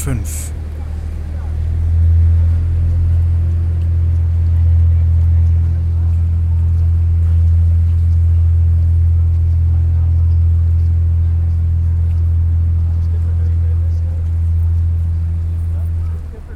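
A heavy, steady engine drone from a boat rumbles throughout, swelling slightly at first, over a faint wash of outdoor harbour background noise at the Landungsbrücken promenade in Hamburg; no voices stand out.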